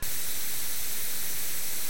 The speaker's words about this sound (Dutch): Genieten van vrije tijd is de koptelefoon opzetten en luisteren naar wat toffe muziek. Werken is een knop indrukken, waardoor de muziek wordt onderbroken door een hele vervelende witte ruis.